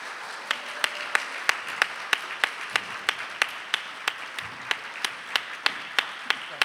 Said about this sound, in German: Wir sind direkt und live aus dem großen Saal des Heimathafen Neukölln und ich begrüße nun meinen zweiten hochbegabten Studiogast. Einen tosenden Applaus bitte für Thorsten Nagelschmidt.